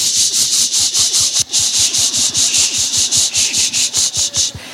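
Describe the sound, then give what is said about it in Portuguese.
A demonstration of patting a baby's back: quick, steady pats, roughly four or five a second, each a soft low thump paired with a bright brushing swish of fabric, continuing evenly with no talking. “And I patted his back.”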